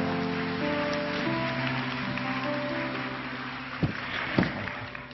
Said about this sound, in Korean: 우리 큰 박수로 목사님 맞도록 하겠습니다.